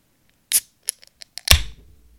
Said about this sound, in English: So, on that note, no, I got one right here. I'm going to crack another beer. And I haven't done it in a while, so I want to hear it.